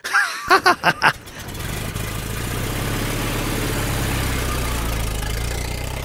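A car engine starts with a few quick sputtering bursts, then settles into a steady, low rumble that runs on evenly as the car pulls away.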